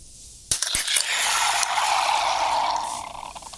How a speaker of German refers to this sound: Also, es geht los. Wir öffnen. Jetzt achte beim Öffnen auf den Schaum. Oh Gott. Guck hier.